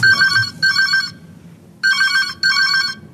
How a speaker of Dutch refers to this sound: Dan is er een melding, dan gaat die telefoon, dan nemen u op en wat zeggen ze dan?